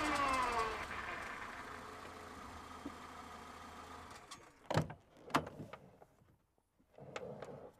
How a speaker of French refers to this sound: Machinalement, le paysan gara sa voiture devant l'entrée de la grange. Il coupa le moteur, claqua la porte, qu'il ne ferma pas à clé, et marcha en titubant en direction de l'entrée située sur le côté.